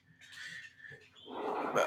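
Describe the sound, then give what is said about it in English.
A dog whimpers and whines in a short, fairly quiet burst of high, wavering cries that grow into a louder, rougher yelp toward the end, with no talking. “That was my dog.”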